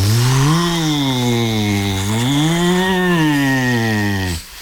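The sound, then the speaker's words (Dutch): A single voice imitates howling wind as a sound effect for a story being read aloud, a long, loud 'whooo' that rises and falls in pitch for about four seconds before cutting off. “Nou, ik lees bijvoorbeeld dat het waait. En dan doe jij de wind na.”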